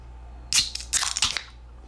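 A can of a newly released beer is cracked open: a couple of sharp, crackly metallic bursts followed by a short hiss of escaping fizz, then quiet. No one speaks.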